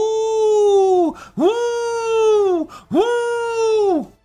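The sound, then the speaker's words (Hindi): Three long, wavering howls in quick succession, each rising and then dropping off at the end, loud, like jackals crying out together outside a cave. “फिर एक दिन ऐसा आया जब वह अपनी गुफा में आराम कर रहा था तो उसे बाहर दूसरे सियानों की”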